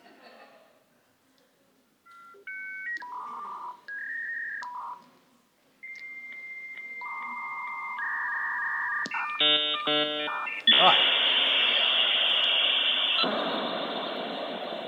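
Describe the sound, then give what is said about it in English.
A computer's dial-up modem dials to connect to the internet with a quick series of tones, then screeches through its connection handshake: steady pitched beeps, a rapid warbling burst and a loud, hissing static roar to the end. A voice briefly speaks. “then unplug it and you plug it into the back of your computer, and then you hit the hardware dial up until you hit the, hit the um, connect to the big, you know, Internet Explorer, and you'd hear this noise.”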